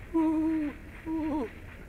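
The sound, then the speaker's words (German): An Englishman who has climbed an old linden tree outside a window in the evening imitates an owl's hoot, two drawn-out hooting calls with a brief pause between them, clear, the second ending in a wavering warble. “Und abends, als Rudi noch vor der Mühle stand, sah er, wie der englische Gag vor Babettes Fenster eine alte Linde erklomm und den Ruf einer Eule nachahmte.”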